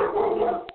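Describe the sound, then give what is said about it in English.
A dog named Roxy barks in a brief, drawn-out outburst followed by a couple of quick clipped yaps, heard at moderate volume with no one talking. “I'm sorry, I'm sorry guys. That's my dog.”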